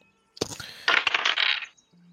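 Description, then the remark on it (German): Dice clatter across a hard tabletop in a quick burst of rattling clicks, tumbling for about a second before settling, rolled by players for a Survival check in a tabletop game; fairly loud, with no talking. “Es, jeder kann so. einmal würfeln.”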